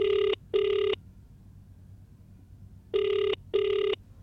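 An outgoing phone call's ringback tone sounds in two double-pulse cycles, each pair of short electronic beeps followed by a pause, clear and steady over a faint low hum, with no one speaking.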